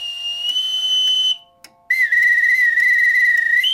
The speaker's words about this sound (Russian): Боцманская дудка – это особый свисток. Им команды подают. Для каждого случая своя мелодия.